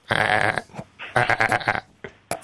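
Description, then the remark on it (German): A human voice mimics goats bleating in two strong, wavering bursts, followed by a few short, clipped bleats near the end, loud with no other talk. “Und das Schöffengericht setzt sich zusammen aus drei jungen und drei älteren Ziegen, teils männlich, teils weiblich, meckert.”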